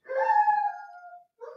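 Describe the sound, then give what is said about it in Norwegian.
A dog howls in one long, wavering tone that slowly falls in pitch and fades, then starts a second howl after a short breath. The dog, on Bygdøy, howls on hearing the word "rentemarginer" (interest margins). No talking. “det var hunden som Det var hunden.”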